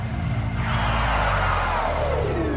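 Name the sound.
car swerving and skidding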